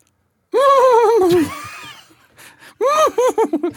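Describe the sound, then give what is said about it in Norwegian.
A person imitates a moose call with a loud, wavering, whinny-like cry, then after a short lull gives a second shaky call that breaks into choppy, laugh-like bursts. “Dyret du skal lage lyden til, er elg.”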